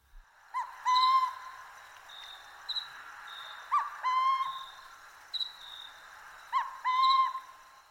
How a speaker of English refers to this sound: the burrowing owls have learned to create a similar sound to the sound of a rattlesnake's tail